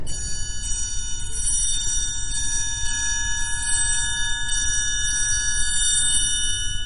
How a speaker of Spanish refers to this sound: No tengáis miedo, respondió el triángulo. Yo hago menos ruido y solo toco cuando es necesario. Escuchad.